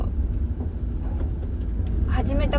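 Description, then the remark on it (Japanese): Steady low road-and-engine rumble from inside a car on the drive home from work fills the whole stretch, loud and constant, with a brief voice rising over it near the end. “私に一番合ってる撮り方が、えー、通勤中、えー、帰宅途中っていう車の中で撮るっ”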